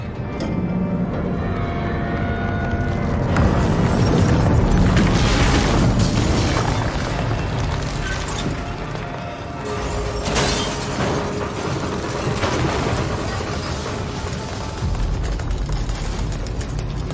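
The rotating parts of the engine of the ship Judgment Day being sliced apart: a loud, sustained grinding rumble with deep booms and metallic crashing bursts, swelling midway and again later, with no voices.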